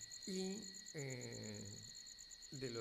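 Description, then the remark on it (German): Cicadas drone steadily at night, a constant high-pitched, shimmering buzz with a faint pulsing edge. Short bursts of a low voice come and go beneath it. “In der Dunkelheit um uns herum sangen die Zikaden.”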